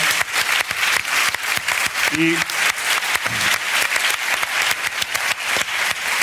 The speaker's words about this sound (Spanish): Muchas gracias a la cadena SER que nos ha permitido también eh, abordar este proyecto. Muchas gracias, un aplauso para